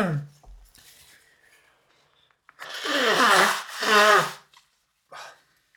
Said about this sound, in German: Ich muss nochmal Nase putzen.